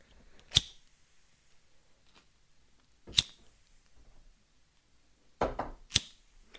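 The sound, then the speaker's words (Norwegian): A lighter is flicked three times to light three Christmas candles, each a sharp click spaced a few seconds apart, the last preceded by a brief scraping rasp. “Nå dro jeg lighteren tre ganger for effektens skyld.”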